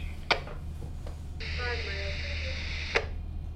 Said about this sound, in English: That's the radio you can hear. We're again five miles away from the breakwaters.